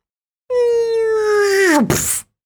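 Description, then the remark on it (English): A voice imitates an attack drone's buzzing with a loud, steady droning hum that sags downward in pitch, then breaks into a short, harsh, noisy burst like a mimicked blast. “Drone attack.”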